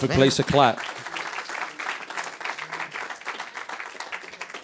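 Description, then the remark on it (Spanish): A brief voiced exclamation gives way to sustained applause from a church audience, a dense, steady patter of many hands clapping that holds at a fairly even level for several seconds. “Ese era un buen lugar para aplaudir y decir,”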